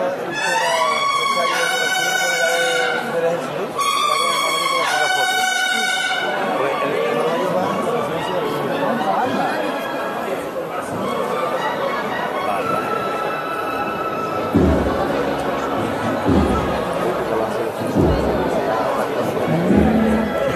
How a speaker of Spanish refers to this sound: Y la banda de cornetas y tambores de la coronación de Compillo de Málaga, que ya toca para la Cruz de Guía.